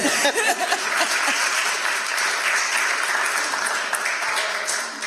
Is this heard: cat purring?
no